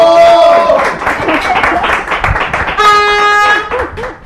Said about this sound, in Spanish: Lady, la Lady, aplausos a la Lady.